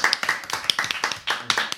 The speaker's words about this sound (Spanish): El único programa donde se aplaude al público y no a los artistas invitados.